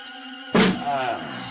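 A single solid thud of a shin knocking into furniture breaks the quiet as someone gets up to see who is knocking at the door, followed right away by a pained vocal groan over a faint background hum.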